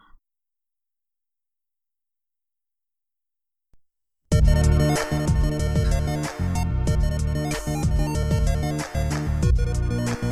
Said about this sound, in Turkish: Arkada duyduğunuz şey a oyun müziği, A8 bit Mario Mario Mario dediğiniz şeyin ismi chiptune. Ee, ve her şeyde kullanılabilir sadece oyun için değil yani.